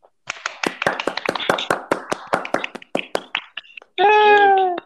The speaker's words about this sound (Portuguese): A gente fica muito feliz e, para isso, a nossa equipe hoje vai dar uma salva de palmas para todos vocês aí.